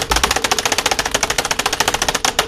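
Rapid, frantic hammering on a computer keyboard imitating the typical sound of a hacker, a dense and steady stream of sharp clacking keystrokes, fairly loud, with no talking over it.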